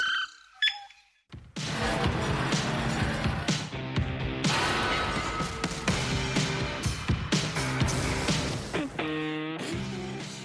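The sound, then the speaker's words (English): In an ad, a Hyundai SUV tears through a parking barrier with an invisible cutting implement, making a loud, sustained grinding and scraping clatter lasting several seconds and ending in a high squealing tone. Forceful, with no talking. “That's the sound of a Hyundai slicing through a parking barrier with some sort of invisible cutting implement.”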